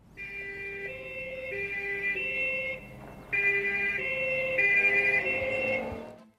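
A police siren wails in a steady two-tone pattern, alternating high and low pitches about every second, loud, with a brief dip midway before resuming.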